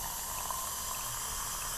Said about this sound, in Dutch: Ik ga gewoon heet water schenken. Ik hou echt van deze kraan. Ik twijfelde heel erg toen ik hem kocht.